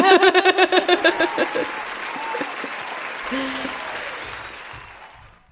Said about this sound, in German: Können wir bitte Applaus einspielen hier für diese?